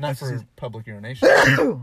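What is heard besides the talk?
sneeze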